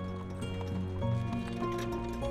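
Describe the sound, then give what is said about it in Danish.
Horses' hooves clip-clop in a loose, uneven rhythm over a steady humming drone as the horses are started and a wagon carrying people slowly begins to move. No one speaks. “Han sørger for, at folk de er klar til at gå videre og få hestene i gang.”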